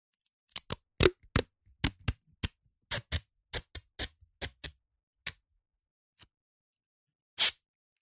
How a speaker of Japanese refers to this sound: はじめに養生テープを切り取っておこう。長さは養生テープ一周分ぐらい。